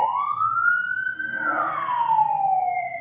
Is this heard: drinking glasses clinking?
no